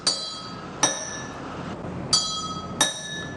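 A small spoon taps two identical glasses of water, one holding more water than the other, four times in two pairs; each strike is a bright clink that rings on with a sustained glassy tone until the next tap, each glass giving a different pitch. No one speaks.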